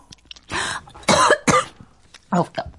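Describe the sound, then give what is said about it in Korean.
Several harsh, bursting coughs in quick succession, loud, with brief gaps between them and a rough throaty edge, ending in a couple of shorter coughs, from a person eating grilled mackerel. “나 너무 감동해서 기침이 나.”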